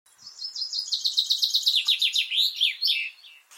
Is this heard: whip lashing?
no